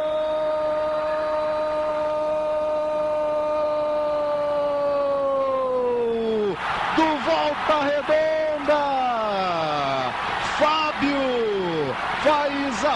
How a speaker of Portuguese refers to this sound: festa da torcida do Voltaço, é a festa do interior que toma conta do Maracanã. Tudo dando certo para Volta Redonda.